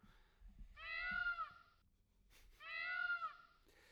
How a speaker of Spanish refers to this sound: ¿Qué era? Un pavo real.